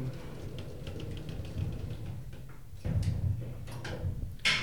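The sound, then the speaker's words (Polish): A door swings shut over a low background rumble, with a few soft clicks and a heavier thud near the end as it latches. “Jestem skierowany w stronę drzwi, które się zamykają.”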